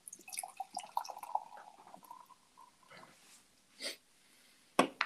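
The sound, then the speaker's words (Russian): A foamy drink pours into a glass with a fizzy, bubbling crackle, followed by a couple of sharp clinks or splashes near the end. No one speaks. “Пускай пена сядет.”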